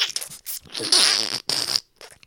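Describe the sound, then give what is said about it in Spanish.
A person vocally imitates a bug zapper, a device with a violet lamp inside that attracts flies and mosquitoes, making a few harsh, crackling buzz-zaps in quick bursts, fairly loud, with short gaps between them. “Una especie de, ustedes han visto los aparatos estos que tienen la lámpara violeta adentro, que atraen a las moscas y a los mosquitos y cada rato uno oye que uno de ellos hace”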